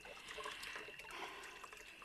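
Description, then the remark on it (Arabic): Water pours and splashes steadily for a couple of seconds as a person pours water over themselves, a continuous rush with a faint trickling texture and no voices. “وانا نصب في الماء على روحي”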